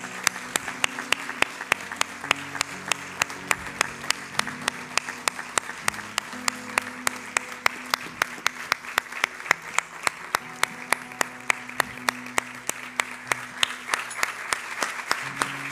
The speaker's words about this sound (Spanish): Yo te invito a darle el mejor aplauso al Espíritu Santo de Dios que está en este lugar. El mejor aplauso.